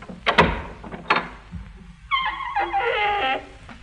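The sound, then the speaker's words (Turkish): A couple of dull knocks or thumps, then a long, drawn-out creak as a door swings open to let in someone arriving, fairly loud with no voices. “Koş aç kapıyı bekletme onu.”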